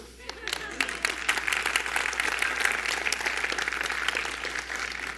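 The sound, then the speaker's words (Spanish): An audience applauds steadily for several seconds, a dense wash of many hands clapping at fairly even volume, with a faint murmur of voices beneath it. “Si ese aplauso es para el Señor, está muy lánguido.”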